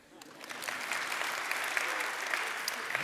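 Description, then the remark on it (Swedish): Applause from an audience in a church builds quickly from a few claps into a steady, dense patter of many hands clapping at once, holding at an even level throughout. “En applåd för det.”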